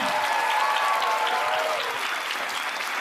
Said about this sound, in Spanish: Un aplauso para ustedes, muchachos.